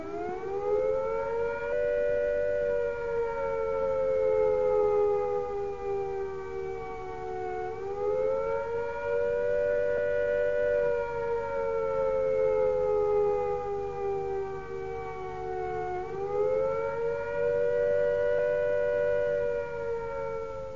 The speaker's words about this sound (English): Now, this is what you should do if you are out of doors when the warning sounds. Take cover at once when you hear the attack sound.